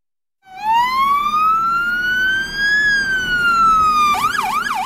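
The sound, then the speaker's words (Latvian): A loud Volvo FMX 6x6 forest firefighting tanker truck's siren wails in a long rising sweep, dips briefly, then breaks into a rapid yelping warble, with a low engine rumble underneath and no talking, as the truck arrives with beacons lit at the forest fire station in Križi. “Volvo FMX6 X6 ir specializētā meža ugunsdzēsības autocisterne, kas šonadēļ svinīgi iedegtiem bākaguņiem un skanot sirēnām iebrauca meža ugunsdzēsības stacijā Križos un tika nodota Dienvidlatgales virsmežniecības rīcībā.”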